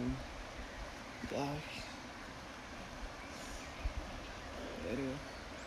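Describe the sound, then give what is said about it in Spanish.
A river flows with a steady, even rush of water that fills the whole clip, while faint voices murmur briefly a couple of times in the background. “Se escucha vergas, ¿no? ¿Quién? El ah, agua, el río, güey. pues pájaros.”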